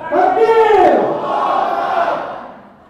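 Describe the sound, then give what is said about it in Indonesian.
A crowd shouts a takbir together in loud unison, the massed voices rising and then falling in a long drawn-out cry that fades away over about three seconds. “Kalian anak bertakbir, aku yang menjerit dari tadi.”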